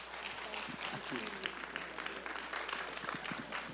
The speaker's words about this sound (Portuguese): Glória a Jesus. Uma salva de palmas, né, gente?